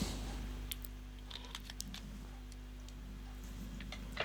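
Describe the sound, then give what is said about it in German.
A few quiet, scattered snips and crinkles of the plastic packaging around a ring being cut open with scissors, with irregular short clicks over a steady low hum and no talking. “Das ist nochmal verpackt. Jetzt brauchen wir doch nochmal eine Schere.”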